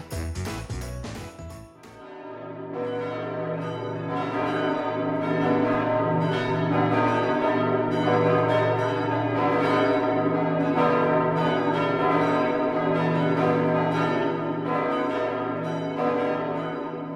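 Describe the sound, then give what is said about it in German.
A large church bell, the Große Marienglocke, rings loudly from the bell tower of the Marienkirche in Lippstadt, struck over and over in a steady swing while a deep, humming resonance sustains beneath each stroke; no voices. “Im Glockenturm der Marienkirche gibt es eine Glocke, die den Namen Große Marienglocke trägt.”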